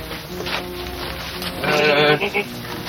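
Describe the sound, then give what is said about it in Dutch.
Several sheep bleat inside a building behind an opened door, their wavering cries overlapping and swelling loudest in the middle before trailing off, with faint barn noise underneath. “Moet jij even een blik naar binnen werpen, daar staan mijn schapen.”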